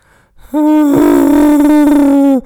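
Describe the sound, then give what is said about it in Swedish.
A person imitates the whistle a microwave meal portion makes when it is done: a single sustained, loud, wavering hoot-like tone lasting about two seconds, heard alone. “Du känner säkert till sådana här mikromansportioner som visslar när de är färdiga.”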